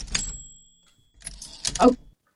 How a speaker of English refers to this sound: Okay, let's hit the typewriter.